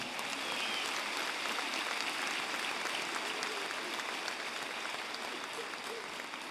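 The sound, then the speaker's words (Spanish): An audience claps steadily and loudly for several seconds during a sermon, giving applause to the Lord, a dense, continuous wash of applause that holds its level throughout without anyone speaking over it. “En el nombre de Jesús, dale un fuerte aplauso al Señor.”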